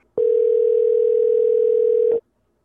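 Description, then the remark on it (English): A steady, continuous telephone tone sounds for about two seconds as a call is placed to a caller in New York, at an even, fairly loud level, then cuts off abruptly, with no voices. “Let's get him on the phone, Corey.”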